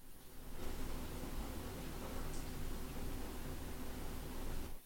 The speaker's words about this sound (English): man, it is raining. Can you hear, can you guys hear that? Nope. Hear that right here? That's how that is. Listen, listen.